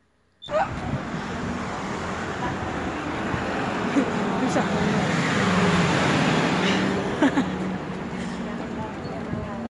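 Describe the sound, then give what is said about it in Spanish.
Busy rush-hour street ambience in a city centre, with a steady roar of cars crossing the roads and a dense murmur of people walking quickly and laughing, with occasional sharper clicks from traffic lights and footsteps, fairly loud and continuous throughout. “Además, en los sitios más céntricos, en horas puntas, nos podemos encontrar con el sonido de los semáforos y la gente caminando deprisa. coches atravesando las calzadas y risas con amigos, entre la gente que pasea por las aceras.”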